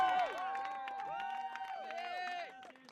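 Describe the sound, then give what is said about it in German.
A crowd of spectators and holidaymakers cheers and shouts encouragement at swimrun race participants, many overlapping voices rising and falling in a steady, lively roar that holds for a few seconds before easing off at the end. “Überall feuern uns Zuschauer und Kann-Urlauber an.”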